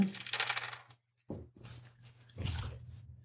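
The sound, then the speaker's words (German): Dice clatter onto a hard table as a player makes his first throw in a game, in a few rattling bursts separated by a short pause, with no voices. “dein erster Wurf kommt.”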